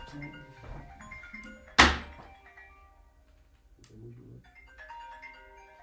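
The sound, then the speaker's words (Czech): An alarm rings with a steady run of bright electronic tones, broken early by a sharp, loud thunk before the beeping melody carries on at a moderate level. “Máš budík, aby si nezapomněl.”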